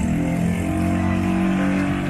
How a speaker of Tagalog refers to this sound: ang ingay ng sasakyan sa labas. Pasensya na.